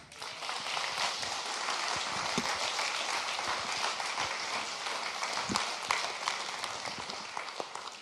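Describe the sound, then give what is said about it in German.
A crowd applauds steadily for about eight seconds to welcome a guest speaker, a dense, even roar of many hands clapping with sharper individual claps popping through, thinning slightly toward the end. No one speaks. “Und ich möchte euch einladen, dass ihr mit einem großen Applaus, einem Matthäus Family Applaus unseren Freund”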